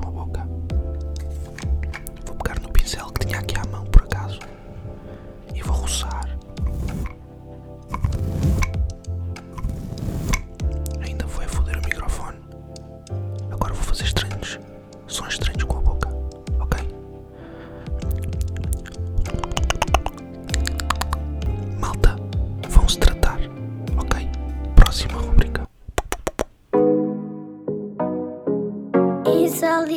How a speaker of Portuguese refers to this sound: eu vou aumentar o ganho do meu microfone e vamos ver. Olá, este é o ASMR do podcast Burn. roçar com um pincel no microfone enquanto faz sons estranhos